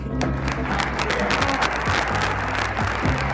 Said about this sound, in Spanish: Y pueden aplaudir si quieren.